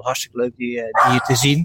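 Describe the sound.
The speaker's own dog barks a few times, sharp and fairly loud, while a man keeps talking over it.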